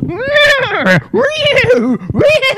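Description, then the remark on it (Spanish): A person's voice mimics a horse whinny in three loud, wavering, high-pitched bursts, the second the longest, with no other sounds around them. “caballo todo pastilla. Yo un, burro, un, burro, apestado.”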